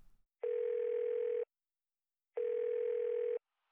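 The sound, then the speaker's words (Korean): Two steady one-second telephone ringback tones separated by a two-second pause, heard while a call to a Honda service centre in Seoul connects. The tones are clear and even, with no one speaking. “서울 혼다 서비스 센터에 전화를 건다.”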